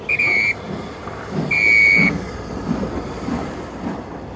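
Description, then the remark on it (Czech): A train at Zbraslav railway station in 1942 sounds two short, shrill whistle blasts about a second apart, followed by a steady low rumble of rolling cars as it pulls away, with no voices. “Teď ne, nechci, aby mi ujel vlák.”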